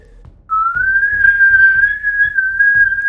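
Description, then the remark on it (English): A person whistles one long, sustained rising note that holds steady and loud for a few seconds, imitating the whistle that controls a character's arrow, with faint low background noise underneath. “What's his name's arrow? the whistle.”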